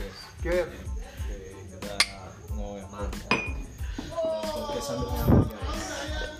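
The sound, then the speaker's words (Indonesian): Several sharp glass clinks ring out at uneven moments, bright, as in a toast, while voices chatter and call out "cheers" around them. “Um, kita mulai dengan cheers.”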